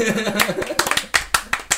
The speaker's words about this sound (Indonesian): tepuk tangan dong anjing